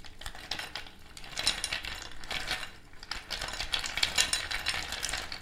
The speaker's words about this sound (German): Ich, ich rühre dazu mal, äh, um, um so ein bisschen Atmo zu schaffen, in den Eiswürfeln.